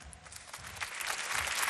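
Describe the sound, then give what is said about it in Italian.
An audience applauds, a dense, steady patter of many hands clapping that swells slightly louder over a couple of seconds, with no voices standing out. “A più ha preso più applausi. Io applaudo.”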